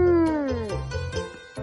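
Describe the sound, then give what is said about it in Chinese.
A wolf howls as it lunges at the animals, in one long, strained cry whose pitch slides steadily downward, followed by a few short, rougher bursts. It's fairly loud and heard alone, with no talking. “大野狼站了起来，挺挺身子，他深深的吸了一口气，然后大吼大叫的向动物扑去。”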